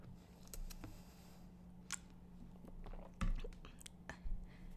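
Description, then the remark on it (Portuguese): Someone in the United Kingdom pauses to drink water: soft wet mouth clicks and a couple of gulps or swallows, with a low steady hum underneath and no talking. “E agora vou fazer uma pausinha. Uma pausazinha para para beber água, pessoal.”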